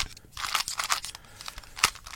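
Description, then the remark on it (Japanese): A speed cube being twisted: a quick, irregular run of crisp plastic clicks and clacks, with one sharper snap near the end, moderately loud and with no voices. “これ多分ね、3×3 のキューブよりいい音する。”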